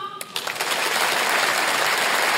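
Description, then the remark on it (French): An audience in a hall bursts into applause after men in the audience are asked to clap. A dense crackling wash of clapping swells quickly after a brief start and holds steady and loud to the end, with no talking over it. “Il y a des hommes ce soir dans la salle par applaudissement.”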